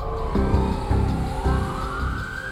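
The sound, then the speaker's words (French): A police car siren wails steadily at night in a city centre, its pitch sweeping upward, with low engine rumble and a few heavy thumps underneath, loud throughout. “Des voitures de flics sillonnent le centre-ville.”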